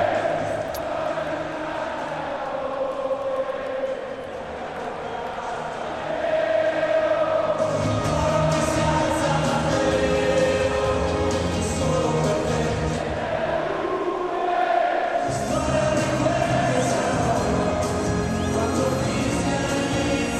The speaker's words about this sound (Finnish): Niin vaikka tässä nyt Yle puheen taajuudella ollaan, niin kyllähän tällaista yleisön mylvintää kelpaa kuunnella ja Juventuksen pelaajat käyvät ottamassa koko yleisön.